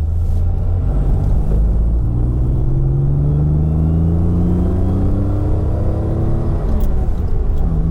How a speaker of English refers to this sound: This is what it sounds like 40 miles an hour, 70. The 4 litre engine suddenly given a chance to take flight. We're on a good straight bit of road in a remote part of the English countryside. Hedges and fields bending into a blur around us.